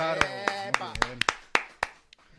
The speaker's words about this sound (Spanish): No tenemos una sola bolsa de café y ya volveremos en enero y eso merece un aplauso.